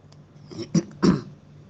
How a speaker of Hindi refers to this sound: मेरे को हर रोज रात को फॉर सम रीज़न खांसी आती है